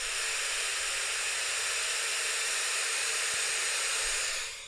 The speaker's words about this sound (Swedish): Det låter som myrornas krig. Det kallas ju white noise.